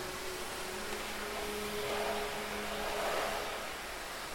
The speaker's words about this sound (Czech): Jsme na cestě. Autem. Teď jsme v myčce.